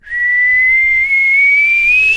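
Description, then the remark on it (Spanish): A loud, sustained whistle made by mouth, holding one clear pitch with a brief dip midway and a slight upward rise at the end, heard alone with no talking. It is a father's signal whistle, which the family also uses to find each other in stores such as Walmart. “Pero no el chiflido de.”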